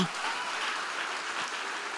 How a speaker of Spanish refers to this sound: ¿Habrá alguien aquí que pueda aplaudir a Dios en esta hora?